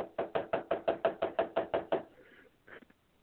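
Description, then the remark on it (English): Eleven quick, evenly spaced, loud knocks on a hard frozen water bottle taken from a refrigerator, with a brief fainter rustle and a couple of soft taps afterward. “Sounds like it's frozen.”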